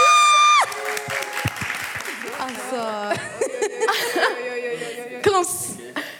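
Audience applause breaks out with a dense, steady clatter of clapping, mixed with whoops, cheers and scattered laughter lasting several seconds.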